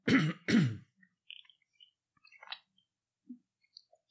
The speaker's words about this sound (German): ich muss mal einen Schluck Wasser trinken, weil ich merke, ich schmatze die ganze Zeit.